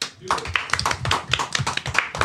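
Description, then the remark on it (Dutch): Brisk applause from a small group welcoming guests, with quick, uneven claps overlapping steadily for a couple of seconds, fairly loud, with some voices mixed in underneath. “Eh, mag ik een uh, warm applaus voor onze gasten vandaag?”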